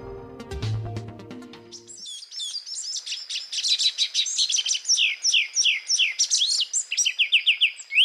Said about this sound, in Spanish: El que oímos es un pájaro de unos 18 centímetros de alto que en el Valle del Cauca llaman guayabero ocre y en otros países de los Andes le dicen tángara pechiocre.